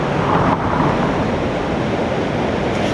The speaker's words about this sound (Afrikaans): onder deur die brug waar ek nou staan aan my regterkant is die vier sluise wat ek kan sien waar die water netjies gerig word deur 'n installasie, ongeveer 20 meter in breedte. En daai water stroom nou af na die Krokodilrivier.